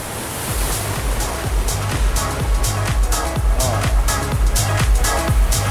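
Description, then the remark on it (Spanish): Wind and ocean waves make a steady, hissing roar, broken by frequent low, rumbling gusts that buffet in an irregular rhythm. No voices are heard. “Hay como mucho viento, ¿viste? Hay, hay mucha ola, mucho viento, pero da, ¿eh?”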